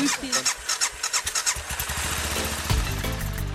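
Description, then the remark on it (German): A motorcycle engine at a winter motorcycle meeting cranks with a rapid series of chugging pulses, then catches and roars to life into a steady, loud rumble, with no one speaking. “Wir sind gerade durch die Kälte bis hierher gefahren. Ja, wir haben uns Von ja aus fast eine ganze Stunde mit dem oh, Motorrad.”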